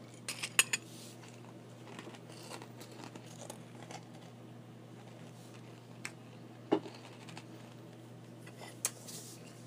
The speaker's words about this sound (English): Is it dead air if you can hear me eating? I don't know.